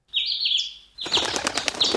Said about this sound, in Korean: 푸드득 하며 잘 날아가던 참새가 그만 보리반 옆 수로로 빠져버리는 겁니다.